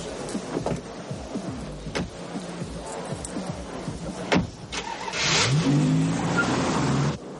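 A car drives away as a man and a young woman leave together after coming out of a bar: a sharp door-like thud, then the engine revs up with a rising whine that climbs in pitch over a steady, noisy background. No one speaks.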